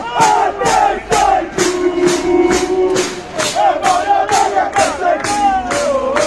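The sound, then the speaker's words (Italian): A large crowd of Italian trade union protesters with red flags at Piazza Montecitorio in 2021 chants the slogan "Mario Draghi a testa in giù" in unison, voices rising and falling in a steady, repeated rhythm with sharp accented beats, loud and dense. “in piazza a Montecitorio. Poi con queste bandiere rosse”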